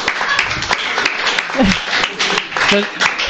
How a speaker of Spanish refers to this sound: Yo creo que eso merece un aplauso.